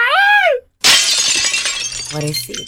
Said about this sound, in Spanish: Por qué quiebran la ventana, güey. porque la rabia de que te encontró ahí con la otra.